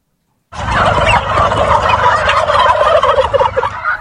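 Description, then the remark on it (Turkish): A flock of turkeys on a turkey farm gobbling together in a dense, continuous chorus, loud, with overlapping warbling calls filling the whole stretch after a brief silent start. “Yeni yılın yaklaşmasıyla birlikte hindi çiftliklerinde hareketlilik başladı.”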